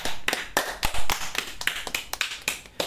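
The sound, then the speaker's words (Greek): A short burst of applause from a few hands, irregular sharp claps at moderate loudness, about a dozen over three seconds, with no voices. “Ένα χειροκρότημα για την τρίτη σεζόν.”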